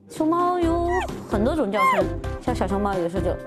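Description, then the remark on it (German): A young panda squeaks in a string of loud, high, wavering calls, some bleating upward then dropping, repeated several times in quick bursts with short pauses between. “Die jungen Pandas quietschen normalerweise.”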